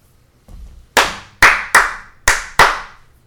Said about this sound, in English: So, Clap.